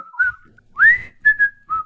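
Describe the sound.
A person whistles a short, bouncy melody, the theme tune of the black-and-white TV show with Andy Griffith, a few clear sustained notes with pitch slides between them, played alone without any talking.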